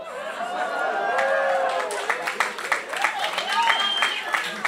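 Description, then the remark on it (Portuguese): An audience breaks into scattered applause, the clapping growing denser after a moment, mixed with cheerful crowd voices and a bit of laughter rising over it. “Não aplauda ainda.”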